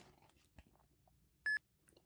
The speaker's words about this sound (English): There we go. I heard a beep. The barcode was at the bottom.